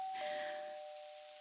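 doorbell ringing

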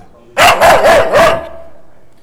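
dog barking

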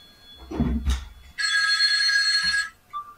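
phone ringing

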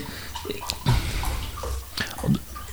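water sloshing

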